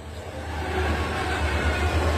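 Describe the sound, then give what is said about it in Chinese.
A steady, loud rumble of a moving train entering a tunnel, with a deep low drone and a broad roaring hiss that swells slightly over a couple of seconds, no voices present. “因为火车进隧道了，当然会黑啦。”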